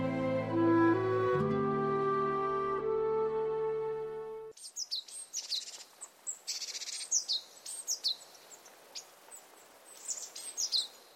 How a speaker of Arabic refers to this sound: وعندما جاء الطائر فاح العبير من الشجره جلس الطائر على فرع الشجره الذي بدا وكانه يحتضن الطائر وراح الطائر يغرد بصوت جميل